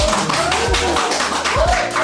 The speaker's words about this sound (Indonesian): Wah, alumni-alumninya cukup berbangga. Tepuk tangan dong.